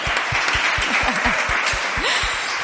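A crowd bursts into steady, dense applause, with a regular thudding beat running underneath and a few voices whooping through the clapping. Loud throughout.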